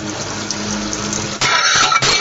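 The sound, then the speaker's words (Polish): Water runs steadily into a foam-filled sink as dishes, including a plate, are washed by hand with dish soap, a continuous hissing splash that grows louder and rougher partway through, with brief clatters and surges. No one speaks. “No, jeszcze jeden talerzyk znalazłem w pianie.”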